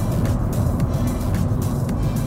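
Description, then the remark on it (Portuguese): A car with a 7-speed CVT transmission drives steadily through a curve, its low engine and road rumble holding an even, continuous level throughout, with faint brief hiss spikes over the drone and no talking. “O carro parece bem equilibrado, é muito gostoso de dirigir.”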